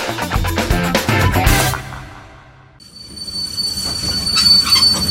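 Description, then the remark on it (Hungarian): A train rumbles past, rhythmic wheel clatter giving way after a brief lull to a sustained, high-pitched metallic squeal of wheels on the rails, loud and without any voices. “Ez egy olyan kis ez izé a vonat megint.”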